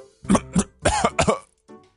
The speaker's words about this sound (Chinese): 我忍无可忍的咳嗽声，又惊醒了熟睡中的老婆和一岁多的儿子。